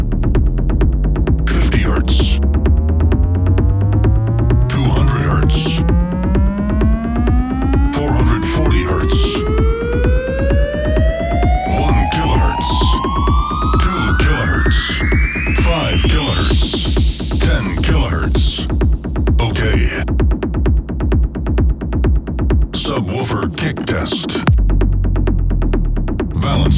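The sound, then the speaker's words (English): A loud, steady test tone in a full frequency sweep glides upward in pitch from a deep 20 hertz rumble to a high whine over about twenty seconds, with harmonics rising alongside and rhythmic throbbing bursts pulsing through it. “Okay, we are about to do a full frequency sweep. 20 hertz.”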